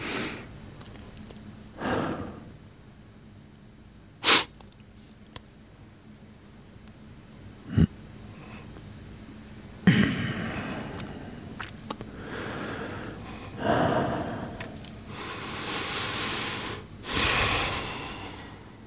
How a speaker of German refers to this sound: So, das war eine halbe Minute. Ich habe uns atmen gehört. Ich glaube, das war ein Fehler. Es war, war nicht richtig still.